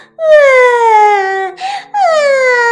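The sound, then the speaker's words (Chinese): In a told children's story, a voice acts out a little white rabbit's loud wailing sobs after it finds a big hole chewed in its roof by mice: two long, high, drawn-out cries with a slowly falling pitch, split by a short breathy gasp in between. “第二天早上，小白兔醒来，发现房顶上有一个大窟窿，伤心的大哭了起来。”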